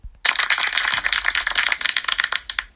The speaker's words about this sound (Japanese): 拍手。